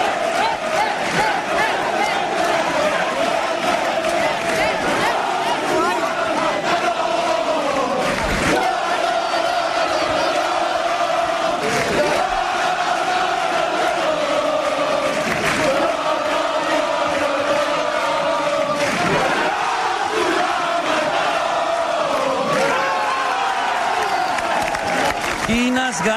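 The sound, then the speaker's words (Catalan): A large crowd celebrates the Capgrossos castellers completing and unloading a human tower, a 3 de 9 amb folre, with a loud, unbroken roar of cheering and shouting voices, sharper whoops and bursts of yelling rising out of the din every few seconds. “Escoltem la seva celebració perquè s'ho mereixen.”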